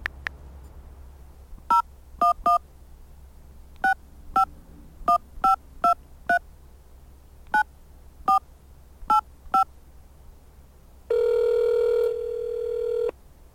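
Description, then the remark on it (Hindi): A series of about a dozen short telephone keypad tones beeps out in an uneven rhythm, followed by a steady ringing tone lasting roughly two seconds. No one speaks. “okay कब call call करूं करूँ अभी बात कर सकते हैं”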